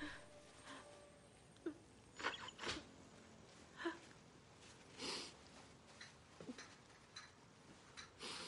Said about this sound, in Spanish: saca un pañuelo y se suena.